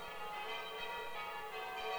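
Church bells ring steadily, their overlapping tones blending into a continuous, resonant wash at fairly even loudness, with no voices present.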